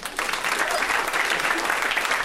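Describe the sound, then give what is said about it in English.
An audience at a show claps steadily for a guest, the sustained applause at an even, fairly loud level for a couple of seconds without a break. “Yeah, round of applause for that, girl.”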